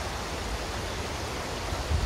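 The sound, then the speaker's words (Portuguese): Steady running water from a stream, a continuous soft rushing hiss with no breaks or distinct splashes, heard alone at a moderate, even level throughout. “e com esse barulhinho de água é tão relaxante, não é?”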